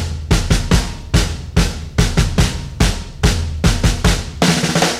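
A rock and roll song released in 2004, the only one written and composed by the band itself, plays loudly with a driving, steady drumbeat and heavy bass and guitar, an instrumental stretch with no singing or talking.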